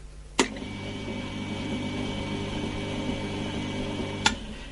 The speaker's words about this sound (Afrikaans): Dit is 'n masjien soos die kleintjie wat nou hier staan. Dit het 'n baie breë een van hierdie blou wiele en die loop in 'n bakkie water. En hy loop ook baie stadig. Ek kan hom net vir jou aanskakel.